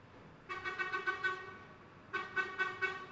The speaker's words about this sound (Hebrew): זה לא אני עושה את האפקט הזה, פשוט משאית פה עוברת למטה, אבל uh, אני ממש מתרגש, זה בא לי בול האפקט הזה.